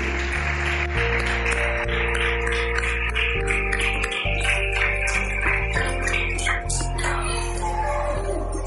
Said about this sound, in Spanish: Un aplauso para todos los papás y mamás que están aquí hoy.